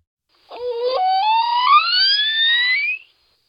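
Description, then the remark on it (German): A single dolphin whistle, high and squeaky, sweeping steadily upward in pitch for about two and a half seconds, clear with no other sounds around it. “Aber dieses Geräusch ist das Geräusch, was Delfine so machen.”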